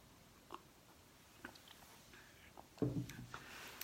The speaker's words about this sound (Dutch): Ehm, ehm, ik neem even een slokje water.